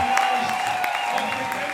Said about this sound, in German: Kurz danach geht das Konzert unter unglaublichem Jubel zu Ende.